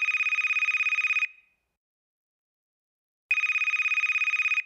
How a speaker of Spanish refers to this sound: Cuando sonó mi teléfono